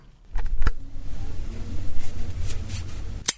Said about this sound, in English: That sound was adjusting a walking stick, so well done if you had a guess.